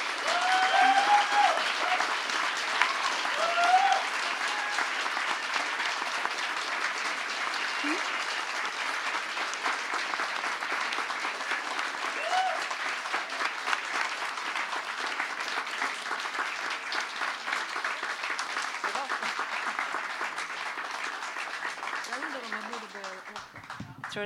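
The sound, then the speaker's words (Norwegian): Sustained audience applause thanking the guests for their visit, a dense wash of many hands clapping steadily for over twenty seconds at an even level, with a few brief vocal whoops near the start. “Og så vil jeg at alle skal gi en applaus til”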